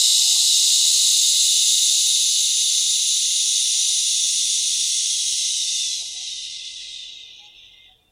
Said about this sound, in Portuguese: Respira profundamente, inspirando pelo nariz, soltando o ar pela boca, deixando que faça um som de shhh.